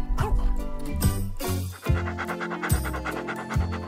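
A Boston Terrier snores and snorts, a steady run of rough, raspy breaths in a quick repeating rhythm with no one talking.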